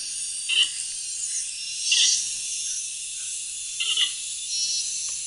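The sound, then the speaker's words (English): A panda gives three short, bleating calls at roughly two-second intervals, a nasal sound somewhere between a cat's meow and a horse's whinny, over a steady high-pitched background hiss of insects. “it's like a, a, cross between a cat and a horse sound.”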